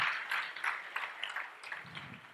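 A church audience applauds, a dense patter of many hands clapping together in a steady wash of sound, fairly soft, with no voices.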